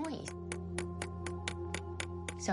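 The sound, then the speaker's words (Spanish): An audiologist taps a pen on a table in a quick, even rhythm, about nine sharp clicks over a steady low hum, to test whether a patient can hear it, with a voice briefly heard at the start and end. “Justo antes de encenderlo, la audióloga me dijo, voy a golpear la mesa con el bolígrafo para ver si lo oyes.”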